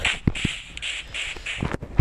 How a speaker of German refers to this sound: Okay, ein Huhn. Sorry, Huhn, tut mir leid.